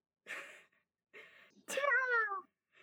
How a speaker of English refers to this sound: Meows.